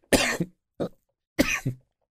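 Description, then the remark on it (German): Three loud coughs with no talking: a harsh double cough, a short single one, then another double cough, each a burst of breathy noise followed by a brief throaty catch. “Ich habe wieder Trennhusten.”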